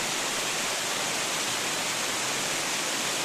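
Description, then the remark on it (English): Water roars steadily over the Balrothery Weir on a river, a dense, unbroken hiss and rush spread across the whole range, constant in loudness with no voices or other sounds. “We've now arrived at the Balrothery Weir, which we mentioned earlier.”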